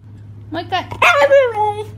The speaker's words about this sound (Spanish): Hay un perro en Alemania que dice hamburguesa.